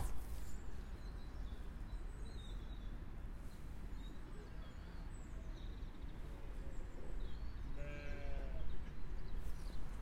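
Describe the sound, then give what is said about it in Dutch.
A goat gives a single short, wavering bleat partway through, set against a steady outdoor farmyard hum on a sunny day, with a few faint bird chirps in the background. “Een van de geiten klimt bovenop een tafel.”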